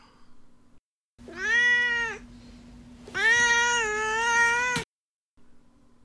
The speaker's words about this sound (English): Now it's time for Duarte's Corner, where my cat Duarte will get to share his opinions about the book.